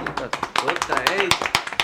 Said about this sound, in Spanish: que si no aplaudimos nosotros no nos aplaude nadie.